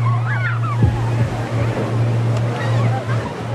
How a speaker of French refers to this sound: Les vagues arrivent